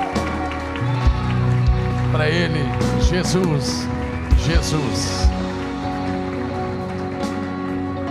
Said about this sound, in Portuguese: Em nome de Jesus, aleluia! Pode aplaudir mais forte ao Cordeiro que venceu.